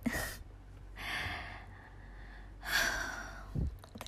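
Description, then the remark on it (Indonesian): Airy breaths: a short sharp intake, then a long deep inhale and a heavy exhale, with a brief puff of air at the end. No one speaks. “tarik nafas dulu”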